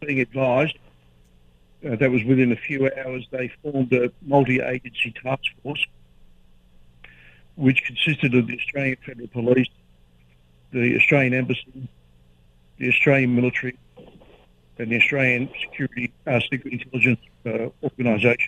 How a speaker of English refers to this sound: Okay, we apologise for the sound quality with mobile phones. I just I just tweeted 50 years ago we put a man on the moon, but we still have uncertain mobile phone quality in mm-hmm. 2017.